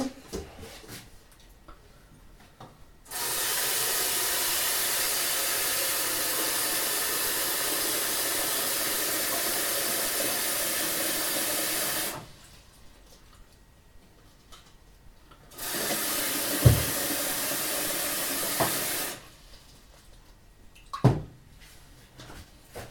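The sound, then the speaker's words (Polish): Water gushes steadily from a tap into a large pot, filled to three quarters for making broth, for several seconds, stops, then runs again briefly, with a couple of metallic clunks near the end and no talking. “napełniam w trzech czwartych.”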